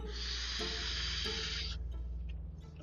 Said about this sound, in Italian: Allora, ripeto, quando sentite dei sibili non sto sniffando cocaina, anche se posso sembrare al tipo di programma che conduco, ma sto svappando tranquillamente.